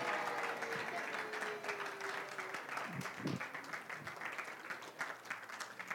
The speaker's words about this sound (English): All right, give them a big round of applause.